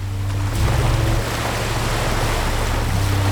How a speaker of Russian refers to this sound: И на фоне мое море. Белое.